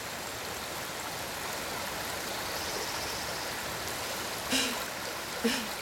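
The water of a small stream rushes by in a steady, continuous flow at moderate volume, with two brief splashy bursts near the end and no voices.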